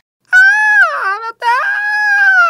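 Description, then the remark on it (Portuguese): A person imitates a desperate scream with their voice: two loud, sustained, high-pitched wails separated by a brief break, with no other sounds. “É alguma coisa assim, é um, é grito desesperado, sabe?”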